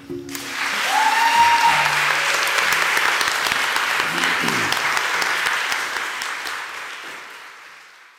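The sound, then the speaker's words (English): A crowd at a county board meeting gives a standing ovation after the board declares a county citizen's birthday, July 11th, a day in her honor: dense, loud applause that builds within the first second, holds steady with a brief cheer and some voices mixed in, then gradually tapers off over about eight seconds. “and the crowd gives her a standing ovation. Now let's give her a hand.”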